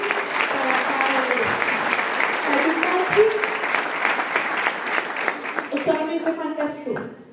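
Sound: audience applause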